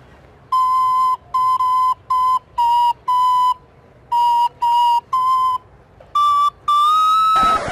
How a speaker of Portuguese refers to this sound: Eu vou falar uma verdade para você eu prefiro ouvir minha flautinha. Eu vou tocar uma flautinha e você vai me falar se ela é mais legal do que o funk ou não. Ó.